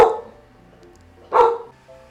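Two loud, sharp dog barks spaced over a second apart, the first right at the start and the second after a pause, with no talking and quiet between them; the dog is barking because construction workers have come in.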